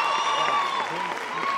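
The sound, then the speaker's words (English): A crowd claps steadily in dense, continuous applause to welcome a pastor's wife, with a murmur of voices and a few cheers mixed into the sustained patter. “You can just also clap and welcome his amazing wife.”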